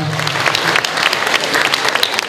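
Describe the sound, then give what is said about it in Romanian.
An audience breaks into steady applause for a group of children, a dense, loud wash of many hands clapping together that keeps going without a break for a couple of seconds. “Să-i aplaudăm și să avem grijă de ei și să iubim.”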